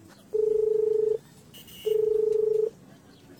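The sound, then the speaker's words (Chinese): A phone call rings out after Zhang Mei's number is dialed from the missed-calls screen of a mobile phone: long, steady mid-pitched tones, each lasting under a second, separated by short pauses, with no voices present. “一星想了想，返回了未接电话的界面，按下了那个叫做张梅的号码。”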